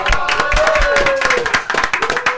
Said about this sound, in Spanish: Bienvenidos, un aplauso bien fuerte que se oiga